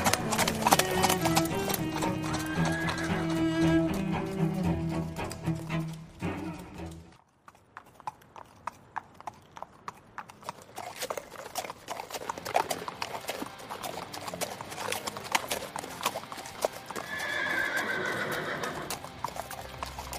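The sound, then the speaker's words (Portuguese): Rapid hoofbeats pound steadily as horses gallop, the drumming thinning briefly midway, then a shrill, wavering whinny rises near the end over the continued clatter of hooves. “alguns dias depois, o, os cavalos de vocês chegam no reino.”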